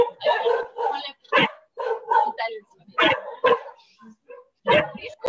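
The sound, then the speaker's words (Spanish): A dog barks repeatedly in an uneven run of about eight loud, sharp barks, some with a higher, yelping edge, separated by brief pauses. “bueno, también participativos los caninos.”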